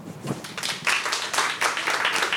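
A crowd applauds steadily to vote for the preferred one of two stories, many hands clapping in a dense, bright patter that holds a fairly even loudness for a couple of seconds.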